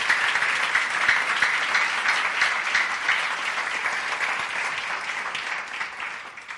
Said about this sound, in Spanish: Podemos darles un aplauso fuerte